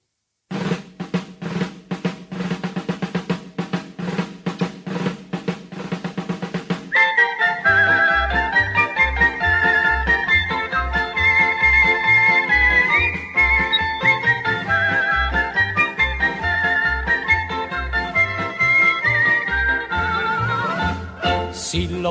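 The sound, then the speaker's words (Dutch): A bright whistled melody opens the Panathinaikos football club song, starting over a sparse ticking rhythm, then a full band with steady bass and drums joins in and keeps a cheerful, marching beat. “Begint ook met fluiten en toen hebben ze gedacht van nou, als wij een clublied gaan maken voor Panathinaikos, dan eh, zorg ook dat ja, een mooie intro is met fluiten.”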